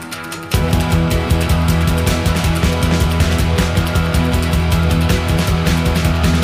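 An indie band song from a September 1984 Peel Session radio recording kicks in after a brief half-second lull, with a full, loud band sound: driving steady beat, bright strummed guitars and bass, no singing yet.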